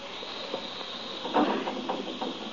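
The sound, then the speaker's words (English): A steady, broad hiss of gas that someone has turned on, escaping from an open valve, runs through the whole clip, with faint irregular ticks and small surges of texture over it; no one speaks. “You hear that? It's the gas. Someone's turned on the gas.”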